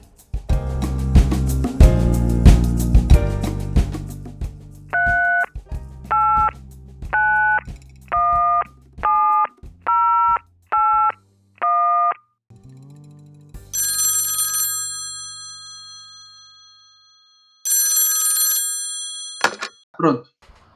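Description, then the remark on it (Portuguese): A string of about eight short, evenly spaced telephone tones, dialed from a public payphone, is followed by two longer ringing bursts, then a couple of clicks, all fairly loud after a noisy opening. “Vamos lá ligar para ele.”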